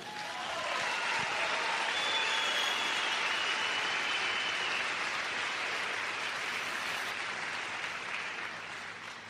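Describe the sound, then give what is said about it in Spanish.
A crowd applauds itself for being there, a dense wash of many hands clapping that swells quickly, holds at full volume for several seconds, then tapers slightly toward the end. No one speaks over it. “Así que date un aplauso por estar aquí.”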